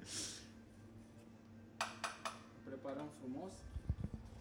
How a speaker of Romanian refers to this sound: o, o presezi acum. Da, o presăm. Ehm, uh, un espresso corect se presează cu o forță de undeva la, trebuie să fie undeva între 15 și 20 de, să exercite o forță de 15-20 de kilograme